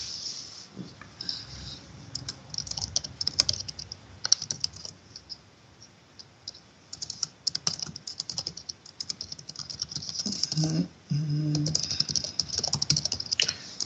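Rapid typing on a computer keyboard while answering in a chat, steady bursts of crisp key clicks with brief pauses between flurries, no voices present.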